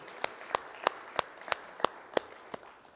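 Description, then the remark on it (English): Hand clapping from an audience giving the Lord a hand clap, with about eight crisp, evenly spaced claps ringing out over a soft background murmur of many hands, at a steady moderate tempo. “Come on, let's give the Lord another hand clap if you wouldn't mind tonight, please.”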